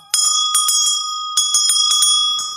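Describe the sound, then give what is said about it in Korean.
A small handbell shaken rapidly by hand rather than played as a sound effect, producing a bright, ringing jingle of repeated strikes in two bursts with sustained metallic tones, fairly loud with no voices. “종소리가 효과음이 아니었네요. 라고 하셨는데요. 맞습니다. 종은 직접 흔드는 겁니다, 여러분들.”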